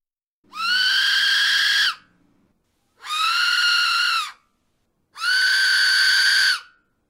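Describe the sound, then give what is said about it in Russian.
Three long, harsh, shrieking whistle blasts from a 3D-printed replica of an ancient Aztec death whistle, each about one and a half seconds with short gaps, loud, sounding like an anguished human scream. “я помещу в описании к выпуску файл свистка с сайта Thinkverse, и вы можете скачать его и распечатать. Каким будет звук? Вот таким.”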